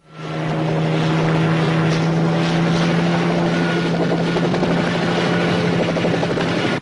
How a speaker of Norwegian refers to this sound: Da tenkte jeg at vi skulle eh, bevege oss over på hovedsegmentet vårt, og da er det filmen 'Predator' fra oh, 1987. Yeah. Get to the chopper! Ja. Vi skal eh, rett og slett eh, høre traileren først.